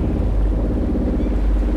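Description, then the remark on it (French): Steady, loud low rumble of a boat on the water, a droning engine hum with washing wind-like noise, continuous and unbroken with no voices. “Et si tu tiens à me chercher sur ce bateau, tu ne me trouveras pas.”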